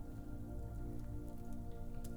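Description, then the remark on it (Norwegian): Light rain falls outdoors in a soft, steady patter with occasional sharper drops, fairly quiet, over a low sustained tonal hum in the background. No one speaks. “Så denne dagen, som vi får høre om nå, så skulle han ikke være med, for det regnet ute. Ikke mye.”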